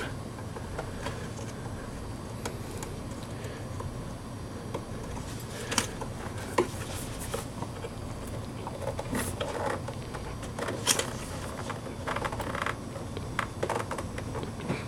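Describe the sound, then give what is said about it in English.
Two 2 GB laptop memory modules, 4 GB in total, being slid into their slots and pushed firmly by thumb to latch, giving a series of short, crisp clicks and crunchy snaps scattered over several seconds above a steady low hum, with no talking. “They make a little bit of a crunching or a snapping noise.”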